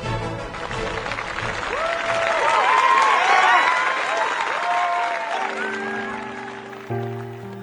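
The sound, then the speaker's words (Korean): A theater audience at the Richmond theatre in London, England, bursts into sustained applause for actress Sarah Adams, star of Lady Macbeth, with cheering and whistles rising through the middle, a dense crowd roar that swells and then fades as a low musical drone takes over near the end. “오늘도 영국 런던 리치몬드 극장에는 관객들의 박수와 갈채가 쏟아집니다.”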